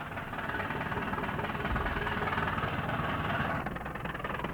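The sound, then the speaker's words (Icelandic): The engines of 35 fishing boats, leaving harbour and heading out to sea at full speed, run hard in a steady, loud, rumbling drone with a dense low-end throb, continuous for the whole stretch and swelling slightly midway, with no voices. “Þá taka allir bátarnir 35 talsins viðbræð og ösla til hafs og allir bátar á fullri ferð til has.”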